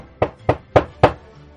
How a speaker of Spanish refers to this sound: Sin perder tiempo, el sargento y un agente fueron a la casa del médico, que quedaba en los acantilados. El agente golpeó en la puerta